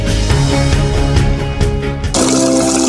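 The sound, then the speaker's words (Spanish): Loud, steady running water rushes continuously for about three seconds, with a soft tonal layer underneath; near the end the flow turns brighter and hissier. “El agua es nuestra fuente de vida.”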